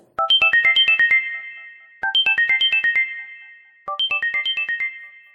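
A mobile phone rings at home just as a mother and daughter sit down to play ludo; the ringtone plays three times in quick bursts, each a bright run of chiming electronic tones, loud, with short pauses between repetitions and no voices.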